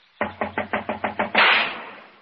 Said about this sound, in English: She must be out. Door's locked. Knock again, if you don't mind.